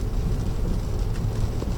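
Heavy rain pours down in a steady, unbroken roar, with a deep low rumble beneath a broad hiss that holds an even loudness throughout. No one speaks.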